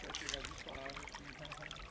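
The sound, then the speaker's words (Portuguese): A small stream protected by vegetation in a university Cerrado preservation area in Brazil trickles and babbles steadily, soft and continuous, with a faint voice murmuring underneath for most of the moment. “Aqui tem um córrego protegido pela vegetação.”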